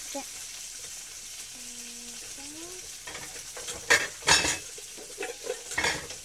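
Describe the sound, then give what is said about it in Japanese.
Spare ribs sizzle steadily in a frying pan, a constant hiss broken by a few sharp clinks and scrapes of a utensil against the pan, as the ribs' surface has browned and the heat is turned off. “スペアリブに表面が出ましたので火を止め”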